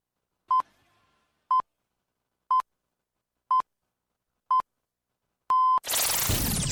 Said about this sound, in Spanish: Este es el primer sonido de la mañana. Este despertador suena bien.